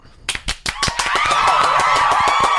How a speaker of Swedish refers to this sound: En, en applåd.